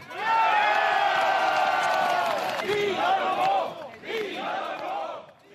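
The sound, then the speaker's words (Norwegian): A crowd at a rally shouts in unison, chanting 'Vidar må gå' (calling for Vidar Helgesen to go), a sustained rising chant that breaks off, then returns in two shorter bursts of voices calling out together, loud and energetic like a protest rally. “Og mens folk ropte 'Vidar må gå', legger dere fram forslag i Stortinget i dag om at akkurat det skal skje?”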